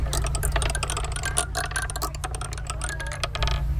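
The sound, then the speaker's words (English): A Plinko chip at Wilmington's booth at the Native Plant Festival clatters down the board's pegs in a rapid, irregular run of sharp little clicks and ticks, steady for several seconds over a low, constant hum, with no voices. “I love that little plinkety plinkety plinkety.”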